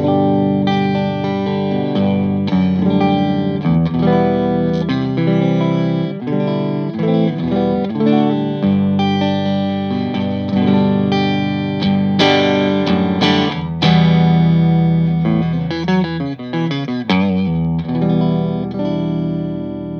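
A clean electric guitar, a Stratocaster on its neck pickup, played through a tube amp with EL34 power tubes, strummed chords and picked notes ringing with warm, full harmonics, steady and fairly loud throughout with no voices.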